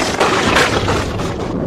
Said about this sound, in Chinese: 我听到大象的脚步声了，可是他们在哪儿呢？